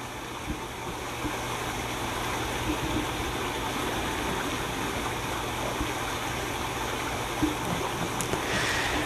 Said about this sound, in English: And with the sound of the water, just gonna let those thoughts wash away.